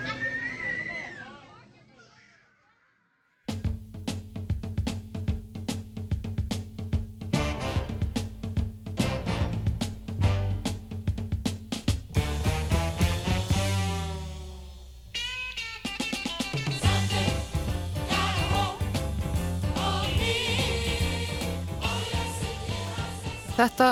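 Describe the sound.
A few seconds of faint children's voices fade out, then a church choir bursts into a loud, lively hymn over a steady rhythmic accompaniment that carries on to the end.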